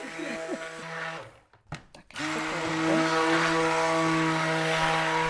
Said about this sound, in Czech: Tak a ručním mixérem. Tak už se to kalí, už to začíná být puding.